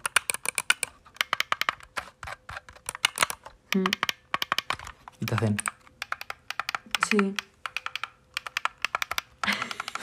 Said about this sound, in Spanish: Sale un teclado. Mm de ordenador